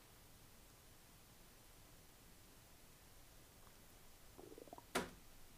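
A quiet stomach rumble gurgles briefly near the end, a short rising series of bubbly squeaks capped by a sharper gurgle, over a faint steady hiss with no talking.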